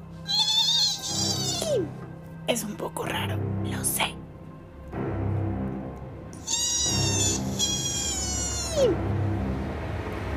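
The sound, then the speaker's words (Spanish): A voice imitates a dolphin with high, squeaky whistling squeals in two long bursts, broken by quick chattering clicks. It is fairly loud, and someone speaks briefly between the calls. “Vamos a imitar uno de los sonidos de los delfines.”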